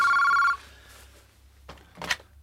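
A telephone rings once with a bright electronic trill for about half a second, loud, then stops, as a call comes in late in the morning; faint rustling and a brief noise follow in quiet surroundings.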